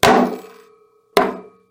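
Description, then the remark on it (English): Two sharp, loud hammer blows, about a second apart, each ringing briefly with a metallic tone before fading. “Ooh, and we hammer it down. You see what I'm doing?”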